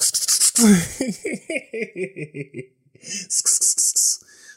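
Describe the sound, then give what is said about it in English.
A voice mimics a callused foot scraping across polyester bedsheets as it goes under the covers: a quick run of stuttering voiced grunts, then a rhythmic series of harsh, hissy scratching bursts, fairly loud. “Every time I put my foot through, get under the covers, it's like you hear that static like”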